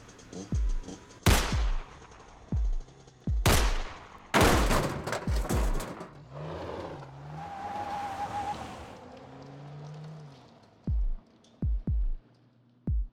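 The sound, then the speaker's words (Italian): Sharp, booming gunshots crack out in several bursts, some in quick succession, fired from the lowered window of an SUV, mixed with the car's engine and a screech of tires as it turns away into narrow streets, then a few more loud shots. “Tre tuoni assordanti rimbombano nella festiva. L'auto svolta e sparisce tra le stradine anguste di quella prigione, da cui ogni tanto qualcuno riesce a scappare in tempo.”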